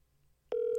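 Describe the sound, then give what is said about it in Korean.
After a quiet moment, a steady phone ringback tone starts abruptly and holds loud, a single unbroken electronic hum that runs to the end, on a phone call that goes unanswered. “어, 이거 왜 이렇게 길어요 중간에 틈이?”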